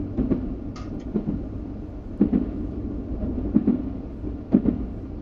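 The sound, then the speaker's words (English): A train rumbles steadily along the rails, with heavy wheel clacks thumping at irregular intervals over a deep, continuous low roar. No one speaks. “I can't tell the train to keep going.”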